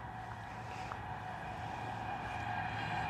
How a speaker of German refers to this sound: Unsere S-Bahn.